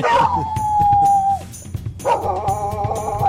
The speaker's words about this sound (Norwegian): Ja, det er noen hunder som reagerer eh, her nå, og vi har satt på denne kjenningsmelodien fordi vi skal snakke om hund.